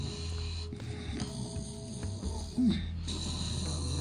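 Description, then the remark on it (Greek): Deep, rasping snores of a witch sleeping in a bed made of pirate-ship wood in a pink bedroom, in slow repeated breaths, a gravelly low drone over a steady background hum, with one louder snort-like burst midway. “Εκεί είδαν τη μάγισσα να κοιμάται, ροχαλίζοντας σε ένα κρεβάτι καμωμένο από ξύλο πειρατικού καραβιού.”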